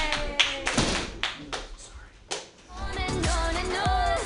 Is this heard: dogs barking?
no